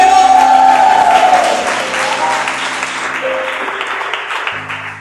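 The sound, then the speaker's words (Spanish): An audience breaks into sustained applause offered to Christ during worship, loud at first and gradually thinning, with a sustained tone and some instrumental notes beneath, and a low chord entering near the end. “Denle un aplauso a Cristo que vive.”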